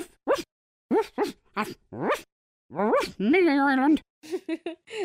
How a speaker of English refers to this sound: The dog was cute. Yeah, you can talk to the dog as well.